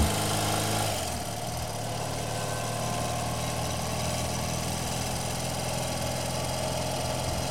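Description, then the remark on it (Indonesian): A motorcycle engine catches with a brief rougher burst, then settles into a steady, continuous idle with a low throbbing hum, fairly loud throughout. “Di saat yang sama, mesin motor menyala.”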